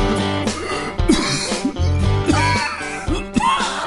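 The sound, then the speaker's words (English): A fit of repeated coughing, with several harsh bursts in quick succession, loud, over steady background music. “If you have a chronic cough, wheezing, emphysema, or other trouble breathing”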